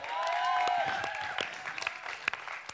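An audience applauds in a dense wash of clapping that starts full and gradually thins out, with a few cheers or whoops over it and scattered individual claps standing out near the end.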